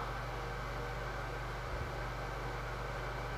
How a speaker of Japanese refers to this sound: これ絶対うるさいよね換気扇うるさくなってると思う今日さ